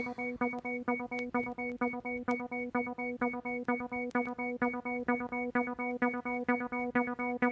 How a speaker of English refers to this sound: The Roland TB303 is a bassline unit. It's the sound of acid house and electro. Even if you don't know it, you know it. It sounds like this.